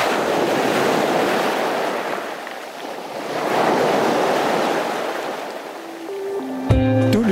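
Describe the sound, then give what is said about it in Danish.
Waves roll onto a beach where people are walking, in slow, broad swells of surf, with wind rushing across the microphone throughout; near the end a brief tonal musical sound cuts in. “vi går her på stranden.”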